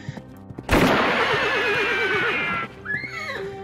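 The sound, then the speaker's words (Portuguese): A frightened horse lets out one loud, shrill whinny that breaks into a quavering, trembling neigh for about two seconds, with a faint, steady musical background underneath. “Acho que são os Baxters e os Zorros de novo, o cavalo tá assustado aqui.”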